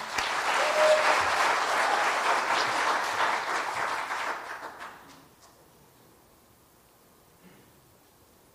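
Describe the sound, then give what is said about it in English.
A crowd claps together for guests about to give their testimony, in dense, steady applause for about five seconds, then it quickly fades out, leaving near silence with only faint background noise. “Let's give them a hand.”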